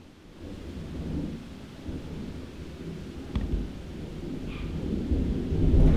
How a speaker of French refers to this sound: putain, il y a eu un énorme éclair. Ah là là, ça fait deux fois que je te fais un épisode de podcast avec l'orage, j'ai l'impression. Bon, j'ai peur. J'espère que ça va pas péter trop fort.